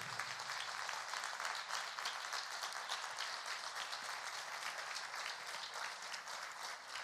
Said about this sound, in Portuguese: Eu gostaria que você aplaudisse esse Jesus maravilhoso.